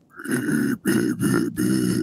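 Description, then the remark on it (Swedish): A voice imitates fart-sound style singing, a low, raspy fart-like growl in four sustained bursts with short breaks between them, buzzy and rough, loud and without any words. “att det är liksom ingen aggressiv sång utan det är mer prutt, pruttljuds-sång liksom.”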